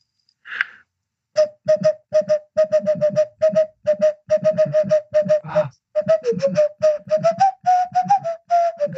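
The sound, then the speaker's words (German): A whistled melody from the theme of the film Pirates of the Caribbean, played as a fast run of short, clipped notes at a steady pitch that rises toward the end, with a brief breathy sound before it starts. “Fluch der Karibik!”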